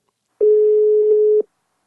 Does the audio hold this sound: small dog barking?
no